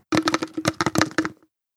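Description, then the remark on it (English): An empty Guinness stout can, a 'celebrating 200 years in America' edition, with its nitro widget rattles and clatters as it is shaken for about a second, a fairly loud burst of rapid knocks with no talking. “It's in a can, but the can's empty.”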